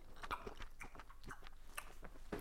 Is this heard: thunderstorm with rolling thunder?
no